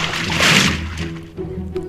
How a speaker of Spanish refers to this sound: Se dirige al pozo de agua dulce. Al llegar, sumerge la cubeta del pozo para subir agua que verterá al interior del pumpo.